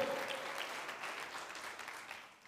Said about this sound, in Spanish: La iglesia le regala palmas una vez más al Señor. Amén.